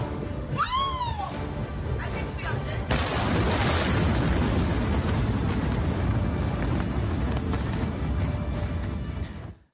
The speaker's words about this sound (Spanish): Son imágenes de guerra, de los primeros bombardeos de Rusia a Ucrania. Anoche y durante la madrugada se registraron las primeras explosiones en la capital del país, Kiev, y en las ciudades de Kharkov y Donetsk, Lugansk, Sloviansk y Dnipro.